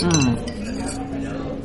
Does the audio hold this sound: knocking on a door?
no